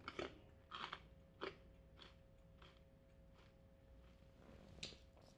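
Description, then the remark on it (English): Crunching of a crisp flavored snack being chewed, with a few loud bites early on followed by softer, irregular chewing crunches, no talking. “Apologies to for chewing in anyone's ear during this.”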